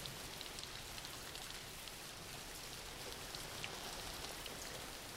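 Steady rain falls throughout, a dense, even hiss of countless drops with faint patters on a surface, holding a constant level with no voices or other sounds.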